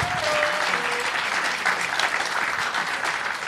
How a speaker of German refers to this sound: Okay, okay, ganz kurz Applaus für die Frau im äh, Stuhl.